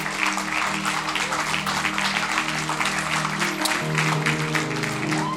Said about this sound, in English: Your clap today is very questionable. Very, very questionable.